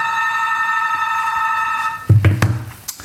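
A doorbell rings with a steady electronic tone for about two seconds, clear, then stops as a few thuds and clunks follow, like a door being handled.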